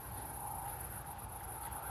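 Crickets chirp in a summer garden beside a large wheat field at sunset, in a steady, unbroken high-pitched chorus, fairly quiet, over a soft low rumble like wind. No one speaks.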